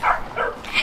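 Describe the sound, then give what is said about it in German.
A dog named Mumpf gives three quick barks in a row, fairly loud, with short gaps between them and no one talking. “Und das ist mein Hund Mumpf.”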